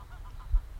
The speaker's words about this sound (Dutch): Op de achtergrond hoor je wat ganzen. Die in het gras wat aan het eten zijn.